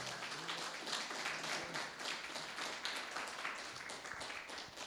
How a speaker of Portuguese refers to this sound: Merece mais uma salva de palmas para o Senhor, aleluia.